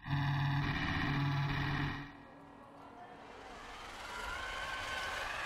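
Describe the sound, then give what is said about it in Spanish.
The small electric motor that drives a wheelchair through the corridors of the Marqués de Valdecilla hospital in Santander hums loudly and steadily for about two seconds, then the tone falls away into a softer, noisy whir that continues. “El zumbido que escuchamos es el que produce un pequeño motor eléctrico, el que impulsa la silla de ruedas”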